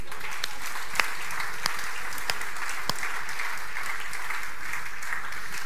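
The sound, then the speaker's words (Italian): Sustained applause from an audience, a dense steady wash of many hands clapping with a few sharper claps standing out, continuing at an even level throughout with no voices. “Fatevi un applauso.”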